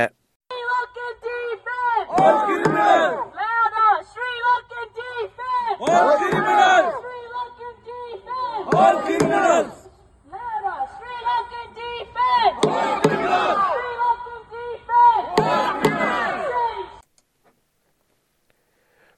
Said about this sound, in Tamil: இந்த ஆர்ப்பாட்டத்தின் போது இனப்பிரச்சினைக்கு தேர்வு போர்க்குற்றம் தொடர்பான விசாரணை என்று பல கோரிக்கைகளை முன்வைத்து கோஷங்கள் எழுப்பப்பட்டன